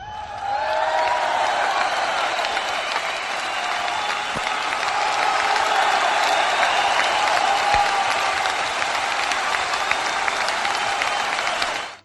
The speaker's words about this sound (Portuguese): Salve de palmas.